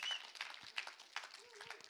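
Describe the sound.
A small child claps their hands in a quiet, uneven patter of soft slaps, with a faint voice murmuring briefly in the background.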